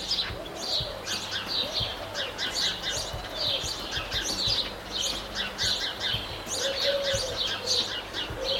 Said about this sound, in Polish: Chociaż nawet bardziej może, może miasta jakiegoś. No w każdym razie jakieś takie ptaszki śpiewające, ćwirkające. Tak to brzmi.